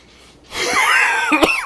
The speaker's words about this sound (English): Sorry. Oh. I'm gonna be I'm gonna be coughing a little bit uh, this episode, and I apologize.